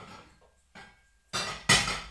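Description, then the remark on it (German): A few sharp knocks of dishware on a hard surface as a small cereal bowl is set down while cooking, with two louder clinks near the end ringing briefly. No talking. “Okay, dann nehmen wir uns noch eine kleine Müsli-Schüssel oder so.”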